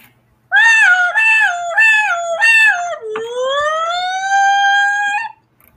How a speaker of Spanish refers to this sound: Una patrulla policíaca se acercaba velozmente a la playa.